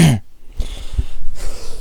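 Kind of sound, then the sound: human body sound, cough and throat clearing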